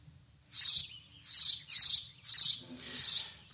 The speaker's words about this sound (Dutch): Een van mijn persoonlijke favorieten, uh, Chilpende huismussen. En dat klinkt wellicht zo.